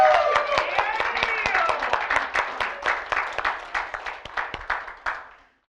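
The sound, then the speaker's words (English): A crowd bursts into rapid clapping mixed with whoops and hollering voices, loud at first, then the cheers fade and the clapping thins to scattered claps before stopping. “Let's clap, let's hoot, let's holler like Nebraska scored a winning, winning touchdown.”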